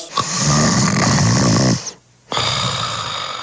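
Loud snoring of a man who has fallen asleep while watching television: a long rattling inhale, a brief silent pause, then another raspy snore beginning. No talking, just heavy sleep breathing.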